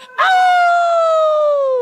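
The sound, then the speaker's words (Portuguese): A voice imitates a dog's howl: one loud, drawn-out wail that starts abruptly and slowly slides downward in pitch for nearly two seconds, alone. “E quando a festa estava quase no final, os cachorros que tinham bebido muito e estavam muito contentes começaram a uivar bem bem alto e atrapalhar toda a vizinhança.”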